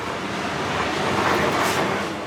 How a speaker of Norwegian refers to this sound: Så setter hun toget i bevegelse bortover skinnene, inn mot en tunnel. Kairos metro er ikke hvilken som helst metro. Den er bare én av to T-baner på det afrikanske kontinentet.